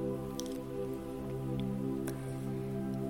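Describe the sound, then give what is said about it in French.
Gentle trickling water of a small waterfall above a small river between two rocks, with scattered soft drips, heard from a distance in a palm-lined setting near the Sahara, running steadily over a low sustained humming drone for the whole stretch. “Au loin, vous entendez le ruissellement d'une petite cascade.”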